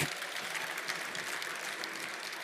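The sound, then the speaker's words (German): Steady applause from a conference audience after a talk on preparing for quantum computers, a dense, even patter of many hands clapping at a fairly constant level throughout, with no voices standing out. “Erstmal einen Applaus”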